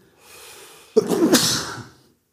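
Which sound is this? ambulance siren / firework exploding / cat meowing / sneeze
sneeze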